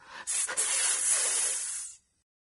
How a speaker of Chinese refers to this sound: 传来了特快列车的气动刹车声。